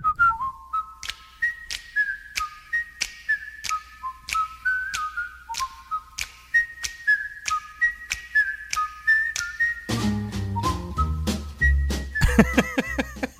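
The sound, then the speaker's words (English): A bright whistled TV theme tune moves in short stepping phrases over steady ticking percussion, and a fuller band with bass swells in for the final few seconds. No one speaks. “I can't whistle that well on on cue.”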